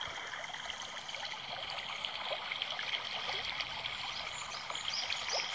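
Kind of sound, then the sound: nature, babbling river stream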